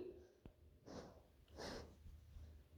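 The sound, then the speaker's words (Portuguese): An animal lying on a person's lap breathes heavily, with two long noisy snorting breaths about a second apart and a faint click just before them, against a quiet low hum. “E o Duque está aqui no meu colo respirando loucão”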